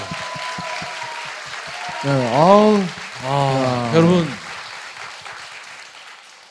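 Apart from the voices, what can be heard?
audience applause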